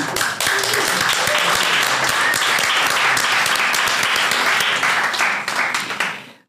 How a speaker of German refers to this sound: Weil wir haben ja heute auch die Weinkönigin tatsächlich da. Schau, da kann ich mal ganz kurz einen Applaus für die Weinkönigin heute aus der Pfalz bekommen, bitte.